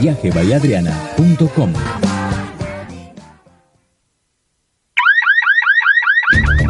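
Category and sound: signal or alarm, alarm sounding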